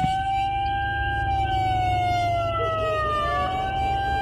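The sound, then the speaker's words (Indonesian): A loud alarm siren blares steadily from a loudspeaker at two o'clock at night, waking students, its tone held high before slowly sliding downward, with a low rumbling hum underneath and no voices. “Suara alarm dari toa speaker menyala begitu keras.”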